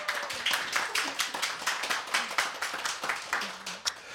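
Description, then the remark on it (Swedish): An audience claps steadily in dense, continuous applause after a live song performance accompanied on piano and guitar, many hands striking in quick overlapping bursts at a moderate level, with a few faint voice murmurs underneath. “En stor applåd!”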